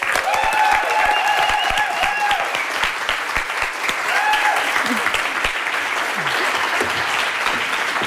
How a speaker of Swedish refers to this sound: Take a bow, hörni. Vilken, eh, vilket eh, påhejande. Helt fantastiskt.